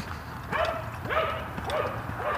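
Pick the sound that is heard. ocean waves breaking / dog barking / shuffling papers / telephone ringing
dog barking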